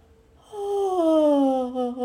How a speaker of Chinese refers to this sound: 大神打了一个又长又大的哈欠